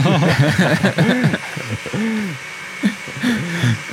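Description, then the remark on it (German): A steady, droning motor whirr like a kitchen machine runs continuously in the background, while voices chatter and chuckle loudly over it throughout. “Ähm, ich finde, es klingt nach Küchenmaschine oder sowas, oder?”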